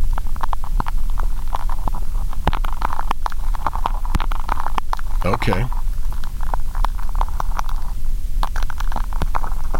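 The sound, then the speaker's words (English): Dense underwater crackling and popping made by sea urchins' teeth scraping on rocks, countless tiny scraping clicks layered into a steady crunchy texture, with a brief low rumbling swirl in the middle and a single spoken word. “and so it's not the sea urchin itself that's making the noise, it's the sound of their teeth on the rocks that make the noise.”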